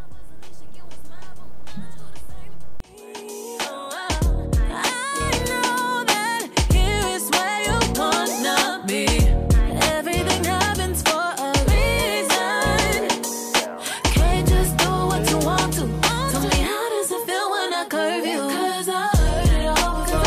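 A pop song plays for about twenty seconds: sung melody over thumping bass and steady percussive hits. It starts thinner, then the full beat kicks in around three seconds and stays loud.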